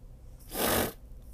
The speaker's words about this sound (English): pardon me. I apologize. I don't mean to be sniffling like that in the uh, on the podcast. I'm just still getting over a cold.